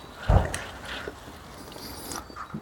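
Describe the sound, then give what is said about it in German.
A single short, loud bark-like burst from a nearby dog waiting for the speakers near the start, followed by quiet outdoor background with faint scattered rustling and movement. “oh toll, da ist ein Hund, der auf uns wartet.”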